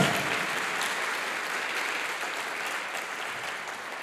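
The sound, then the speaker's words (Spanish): An audience claps steadily in sustained applause for the Lord, a dense wash of many hands that holds a fairly even loudness for the whole stretch, with no voices standing out. “Dele fuerte ese aplauso al Señor. Fuerte ese aplauso.”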